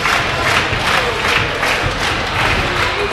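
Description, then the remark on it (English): A packed arena crowd at a Combat One fight show cheers in a loud, dense, continuous roar that swells and dips in rhythmic waves, with dull thumps woven through the din and no clear voices standing out. “Crowd's been on fire all night though.”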